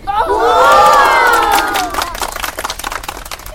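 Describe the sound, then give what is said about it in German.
A crowd erupts in loud, excited cheering and shouting, many voices overlapping in a dense roar that peaks early, then breaks into scattered clapping and fading whoops. “Die herbeigeeilten Zuschauer flippten komplett aus”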